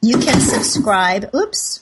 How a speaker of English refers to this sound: my dog just knocked over the trash can if you heard a little something in the background. Hey there, Forbes. Wonderful dog.